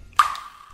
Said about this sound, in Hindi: तो उसके फोन पर पानी की एक बूंद गिरी